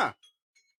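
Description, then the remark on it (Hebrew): A bell rings with one bright metallic strike, followed by two fainter, high tinkling chimes that quickly fade. No voices are present. “אתה שומע את הצלצול?”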